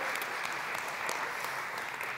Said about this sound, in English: Yes, let's, let's give the band one more round of applause. And the, uh, the team in the back, too.